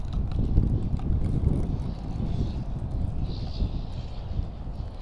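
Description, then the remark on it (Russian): Heavy wind buffets the microphone in a continuous low rumble, loud and gusty throughout, with no voices heard. “Сейчас опять ветер, ветер, ветер, ветер дует.”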